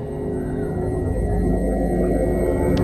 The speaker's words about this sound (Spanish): con unos repetitivos dos pip cambiando al zumbido a principio de los años 90, el cual sigue operativo hasta hoy. Se aprecia un breve cambio en el tono de la grabación, aproximadamente 20 zumbidos por minuto el día 16 de enero de 2003